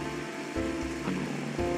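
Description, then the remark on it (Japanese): Steady rain falls in Kyushu, Japan, with a soft, constant hiss, with a few low thumps and swells over about two seconds. Nobody speaks. “まあちょっと天気が良ければねいろいろお花見とか行けたと思うんですけどちょっとあいにくの天気で九州では雨が降ってて長崎の綺麗な桜もちょっとこの雨で散っちゃうかなっていう感じなんですけど”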